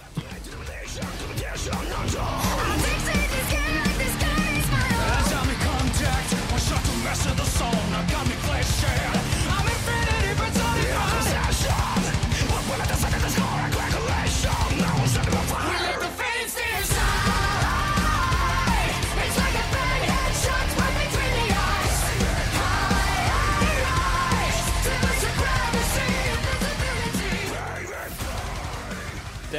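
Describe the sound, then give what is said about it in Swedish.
A loud, dense heavy metal song by a Swedish band from Gothenburg, the official song of the Swedish esports national team, blending rock, rap and electronic elements, with pounding drums, distorted guitars and vocals that cut out briefly midway before surging back and fading at the end. “Det är lite metal, lite rock, lite rap, lite elektronisk. En salig blandning av genrer.”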